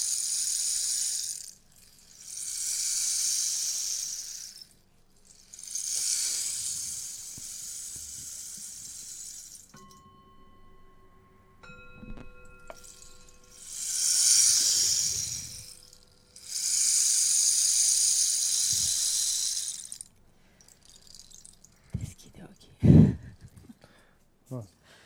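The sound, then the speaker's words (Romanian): Rain sounds come in four loud bursts of hissing, pattering noise, separated by short pauses, with a few faint sustained tones in the middle and some low thumps at the end. “mai simțim un pic și sunetul ploii.”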